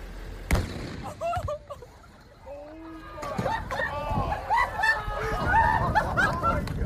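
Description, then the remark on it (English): An old jet ski is blown up: a single sharp, loud explosion booms out at the start, followed by a few smaller pops and then people whooping and shouting excitedly for several seconds. “Then we blew up that old jet, Jet ski.”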